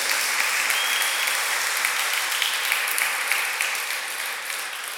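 A church audience applauds steadily for someone who shared, a dense, even wash of many hands clapping that stays loud throughout and eases off slightly toward the end, with no voices standing out.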